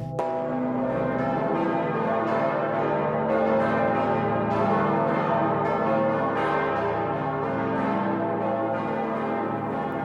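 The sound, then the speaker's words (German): A large, deep bell of Erfurt Cathedral in Germany, known as the queen of bells, tolls steadily, its rich low hum and layered overtones ringing continuously and loudly, with each swing renewing the sustained resonance and no voices present. “im Dom von Erfurt befindet sie sich die Königin der Glocken, die Gloriosa.”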